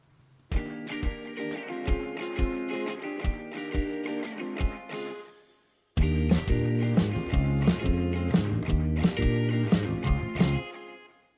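A recorded song opens with a flute melody over steady drum hits; after a brief pause near the middle, the full band comes in louder and denser. No one speaks.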